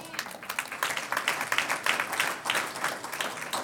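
A church audience breaks into steady applause for a member who gave the right answer, a dense patter of many hands clapping at an even level for several seconds without anyone speaking over it.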